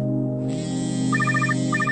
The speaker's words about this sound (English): My cell phone rings again, so I wander back into the living room to grab it.